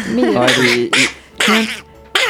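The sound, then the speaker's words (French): A voice imitates the cartoon duck Donald Duck, producing a run of four raspy, nasal quacking bursts with short pauses between them, loud. “Et c'est toi, tu peux nous faire Donald aussi Non.”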